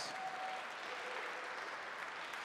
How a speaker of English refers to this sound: Oh, sure, give them a round of applause.